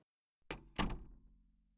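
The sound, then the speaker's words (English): A dining room door swings shut with two quick, solid thumps, the second louder, followed by a low wooden resonance that fades over about a second, with no voices. “after she closed the dining room door behind her.”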